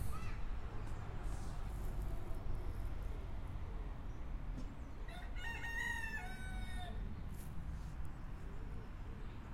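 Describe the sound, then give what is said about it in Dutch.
A rooster crows once, a strained, rising cock-a-doodle-doo lasting about two seconds, over steady outdoor rumble and wind-like noise. “Een die kraait.”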